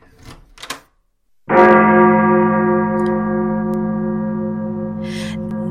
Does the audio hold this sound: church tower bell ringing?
yes